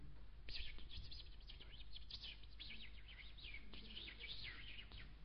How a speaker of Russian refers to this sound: Чувственное восприятие, звук, успокаивающая музыка или пение, классика, или слушать, допустим, птиц. Птицы.